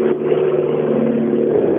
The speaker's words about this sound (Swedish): Det var ju en läckande växellåda där senast eh, på Lells bil och eh, det torde vara, eh, vara avhjälpt nu och får se vad tempot räcker till där. Sannolikt inte hela vägen upp i topp men eh, mycket skönt motorljud.